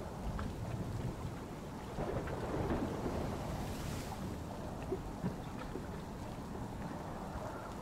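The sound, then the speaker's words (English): A continuous deep rumble of rolling thunder at night blends with the steady wash of sea waves, forming a dense, low-heavy roar that swells briefly around the middle, with no voices. “With each scattered tear of the night sky, rumbles of thunder fill the air, rolling alongside the tenacious sea waves.”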